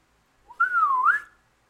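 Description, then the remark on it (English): A woman whistles a single short whistle, clear, sliding down in pitch and then curling back up at the end, with silence on either side and no talking. “she whistles.”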